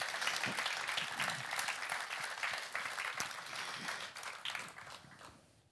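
A crowd claps steadily for several seconds, a dense patter of many hands that thins and fades out at the end, with no talking over it.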